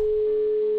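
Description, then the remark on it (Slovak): A steady, pure telephone ringback tone hums continuously and fairly loud, the single beep of an unanswered call ringing on the line, with no voices. “Jajaj, no, necháme ešte zvoniť.”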